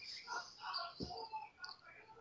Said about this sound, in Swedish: Herregud, hör ni honom utanför? ja. Vi har hört lite fågelkvitter och sådär.